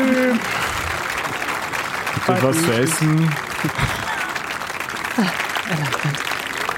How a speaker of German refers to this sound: ich fange so an zu klatschen